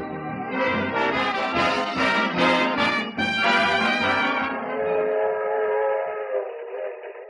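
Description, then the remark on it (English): A train whistle sounds loud with rich harmonic tones, layered over the rumble and clatter of a train at a suburban railroad station, the whistle tapering off toward the end. “A suburban railroad station”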